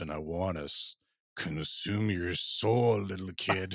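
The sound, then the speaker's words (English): A voice mimics a tape slowing down on a dying battery, speaking a short phrase in a deep, drawn-out, sagging tone with one brief pause, fairly loud. “All while whatever you were listening to started to sound like this”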